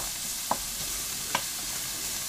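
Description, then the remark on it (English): Steady sizzling of sausage cooking in a mild, non-spicy sauce in a pan, with two brief utensil taps against the pan a little under a second apart. No voices. “So I'm just um, cooking beautifully this sausage, the mild sauce because it is not spicy.”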